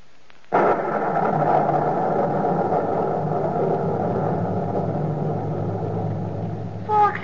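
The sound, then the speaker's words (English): A loud roll of thunder from a storm at night bursts in suddenly after a brief quiet moment, then keeps rumbling deep and steady for several seconds without fading. No voices are heard. “Soul, in the thunder of the night, why do you weep?”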